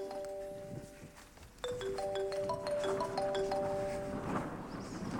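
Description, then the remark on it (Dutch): A telephone rings with a melodic electronic tone, sustained notes stepping between a few pitches for about five seconds, fairly loud, with no talking over it; the call comes from the casting agency Van Ransdorp Casting. “Dat begint dan meestal met een, met een telefoontje. Oh, wacht, daar gaat hij al.”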